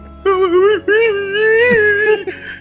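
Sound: voice imitating someone crying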